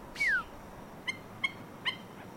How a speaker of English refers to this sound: Moorhen calling behind us on the ground. Oh no, sorry, that's blackneck stilt.